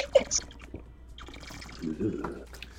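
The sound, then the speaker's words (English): Wet gulps of water drunk right at the microphone as ASMR, a few swallowing sounds with small drippy clicks, then a fuller, throaty gulp near the end. “you gotta drink a, like three big gulps of water. I'm gonna ASMR this water.”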